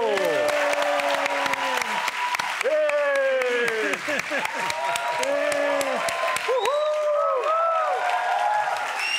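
A studio audience bursts into loud, steady applause, dense clapping running throughout with excited cheers and rising and falling whoops layered on top, holding strong for about nine seconds.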